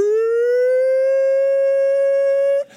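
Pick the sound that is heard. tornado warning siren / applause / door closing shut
tornado warning siren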